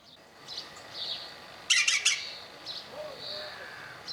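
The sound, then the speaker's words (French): A green woodpecker gives a short burst of harsh, rapid squawking notes midway, with fainter scattered calls before and after over a soft outdoor hiss. “Un pivot le pivert.”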